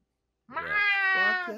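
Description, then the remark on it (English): A person imitates a cat's meow: one drawn-out, wavering mew, fairly loud, rising into a sustained nasal tone before trailing off, with no other talk. “Just makes me think of a bunch of kids looking like the kid from The Ring that meows.”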